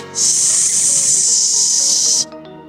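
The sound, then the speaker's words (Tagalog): Freshly cooked sisig sizzling on a sizzling plate: a loud, steady, high-pitched hiss that starts abruptly, holds evenly for about two seconds, then cuts off, leaving faint low clatter behind. “Yung bang kapag ah, halimbawa bagong luto siya na tapos nilagay mo sa sizzling plate yung”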